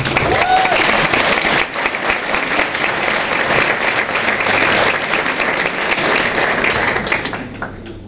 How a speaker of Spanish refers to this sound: Yo pido un fuerte aplauso para ellos.